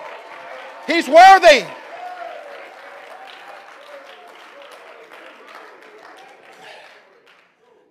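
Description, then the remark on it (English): A church audience claps their hands in praise of God during a morning worship service, a steady, dense wash of applause lasting several seconds, with a loud shouted voice near the start, before the clapping gradually thins out and fades. “Come on, clap your hands and praise Him this morning.”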